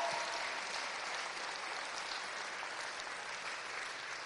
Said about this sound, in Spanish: ¿Puedes dar un aplauso fuerte a Jesús? Él está en nuestra barca.